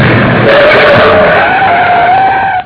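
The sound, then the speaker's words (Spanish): A loud tire screech that rises into a sustained squealing whine for a couple of seconds as a chauffeur-driven car with a flat tire skids to a halt, then cuts off abruptly. “Llevo una llanta baja. Tienen que subir a otro auto.”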